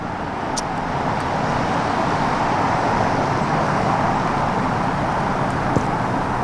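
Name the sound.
loud truck passing by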